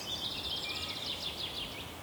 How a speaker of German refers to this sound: Ich höre die Vöglein zwitschern.